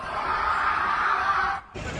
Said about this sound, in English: The explosion turning the complex's courtyard into an apocalyptic moonscape. Survivors screaming in terror.